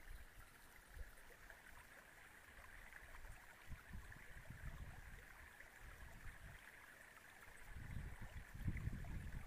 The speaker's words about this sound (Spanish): Mientras tanto, despertad tu sentido auditivo, escuchando el agua correr y la brisa.